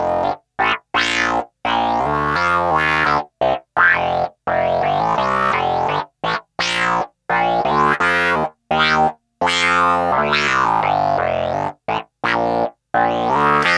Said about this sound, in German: Und du siehst, man kann auch so mit einem normalen Wawa rumspielen. Klingt vielleicht nicht ganz so cool wie das Talk Wawa, was ich gerade hatte, aber jedes Wawa hat ja seinen eigenen Sound, seinen eigenen Effekt.